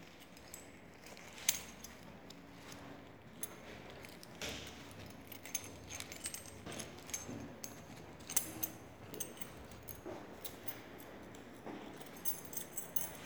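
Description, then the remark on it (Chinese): A bunch of keys jangles in a hand for several seconds, bright metallic clinks and rattles coming in irregular bursts, some sharper than others, with no voices. “用我手中的钥匙，让海潮来。”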